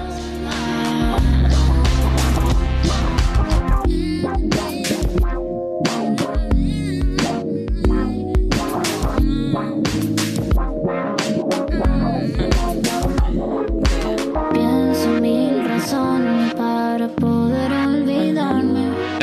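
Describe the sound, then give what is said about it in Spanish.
A synth solo with a wah-wah, piano-like tone winds over a full band and steady drums, loud and continuous for the whole stretch, with no voices. “Como un piano con guagua, no sé bien qué, será, pero, pero, me se encantó.”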